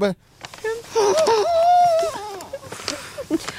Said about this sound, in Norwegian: Hva, er det en lyd fra noen som griner? Ja.